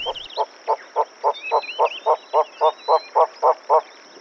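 A Von der Decken's hornbill at a zoo in winter calls in a steady series of about thirteen hollow, clucking notes, fairly loud, while faint higher bird whistles drift in the background.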